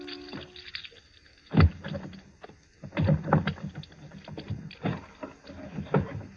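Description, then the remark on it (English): A luggage trunk in a cottage is opened and rummaged through in a search, with a series of irregular knocks, thumps and wooden clatters rising and falling over several seconds, no voices. “be so kind as to open your trunk.”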